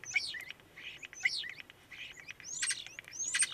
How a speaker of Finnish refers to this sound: ja pistän, pistää päräytän tuota kottaraista vähän taustalle tirskumaan, niin saadaan tunnelmaa siitä.